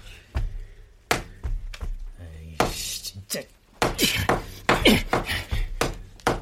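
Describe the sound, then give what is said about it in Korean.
Muffled thuds of a rubber mallet covered with a colorful sleep sock pounding on an apartment wall, struck in irregular bursts, sparse at first and then coming in a quicker, denser flurry of dull knocks. “제가 고무망치로 두드리자 그들도 병 너머로 대답해왔죠.”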